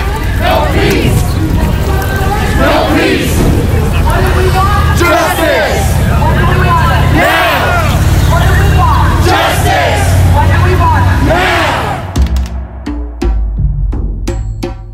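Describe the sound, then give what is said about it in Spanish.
A large protest crowd in Washington, D.C., demanding justice, chants "Sin justicia no hay paz" (No justice, no peace) loudly in a rhythmic, repeated cadence, many voices rising and falling together over a dense crowd roar, before the chanting breaks off into scattered noise near the end. “El grito es el mismo en todo el país. Sin justicia no hay paz.”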